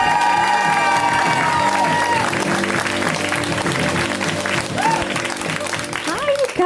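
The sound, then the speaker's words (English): Loud, sustained audience applause with cheering and scattered whoops, a dense steady wash of clapping that holds strong for several seconds, with music playing underneath, as comedian Alice Wetterlund is introduced at a comedy show. “Give it up for Alice.”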